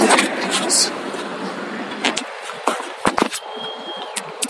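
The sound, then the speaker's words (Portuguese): A city bus rumbles with a broad, steady roar of engine and road noise, which drops away after a couple of seconds, leaving scattered clicks and knocks; the bus is arriving for a waiting passenger to catch. “Tá vindo lá, hora, busão.”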